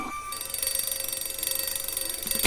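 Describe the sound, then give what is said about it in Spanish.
A bright, rapid electronic alarm clock rings steadily and loudly, its high trilling pulses repeating in a fast, even rhythm, with no voices. “El, alarma!”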